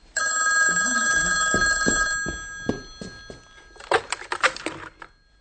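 A telephone in a home hallway rings loudly and steadily for about two seconds, then stops, followed by a series of sharp clicks and clatters like a handset being picked up and handled.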